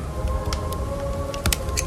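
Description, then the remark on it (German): Scissors received as a Christmas present being handled: a handful of short, crisp clicks at irregular intervals, with one sharper double snap, over a faint steady background hum. “Das ist eine Schere.”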